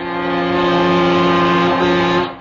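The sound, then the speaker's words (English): A single long, loud Union Pacific locomotive horn blast, sounded as the train came around a corner going full out, holds a steady, chord-like tone for about two seconds before cutting off, with no voices present. “All of a sudden, around the corner, she let out a big blast.”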